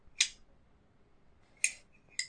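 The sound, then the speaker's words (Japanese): Three sharp metallic clicks of a Zippo lighter lid snapping open, crisp with a brief bright ring, spaced unevenly against near silence. “音がええんですよね。この開けた時の。この音。これ今ジッポですけど。”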